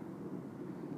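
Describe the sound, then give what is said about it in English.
A steady, low rumble of an airplane passing overhead, droning continuously like thunder, fairly quiet and broad with no voices. “Okay. It's the plane. It sounds a lot like thunder, though.”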